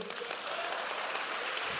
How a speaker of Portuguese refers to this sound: Se você crê nisso, dá um aplauso ao Senhor.